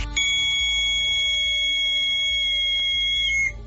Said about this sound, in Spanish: Eh, silbatos uno o dos intermitentes.